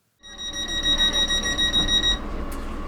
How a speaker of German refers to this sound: Dieses Piepsen an die Türen mhm. mag vielleicht für andere Menschen ein bisschen nervig sein. Äh, für mich natürlich, also für uns alle, blinde, sehbehinderte Menschen, äh, eine tolle Sache, weil äh, ich einfach die Tür leicht finde.